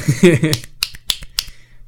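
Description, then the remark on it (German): A voice speaks briefly, then a handful of sharp, scattered hand claps ring out at an uneven rhythm over a steady low hum, fading quickly; the clapping applauds someone's re-election to the board. “Die Audiospuren von dem Applaus sehen interessant aus.”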